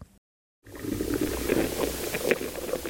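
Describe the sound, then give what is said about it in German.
Continuous scratching and faint crackling of insects and earthworms burrowing through soil, recorded underground, a dense rustling texture with scattered small clicks, starting after a brief moment of silence. “Insekten und Regenwürmer ackern sich durch die Böden. Hier zu hören in den Aufnahmen des Schweizer Ökoakustikprojekts Sounding Soil.”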